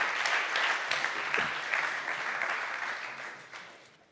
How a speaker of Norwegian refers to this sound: Ja, gi dem en kjempegod applaus.